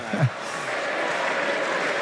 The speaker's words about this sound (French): les supporters argentins qui. Euh, pas découragés euh, sur cette fin de match. Il reste 3 minutes et qui euh, applaudissent leur, euh, leur, équipe.